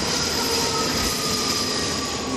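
A metro train rumbles loudly and steadily as it approaches a station and slows, its wheels giving off thin, sustained high-pitched squeals over the dense roar, with no voices.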